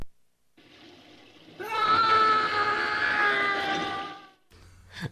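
A woman screams, one loud, high-pitched cry held for nearly three seconds after a softer lead-in, then it cuts off and a brief sharp noise follows.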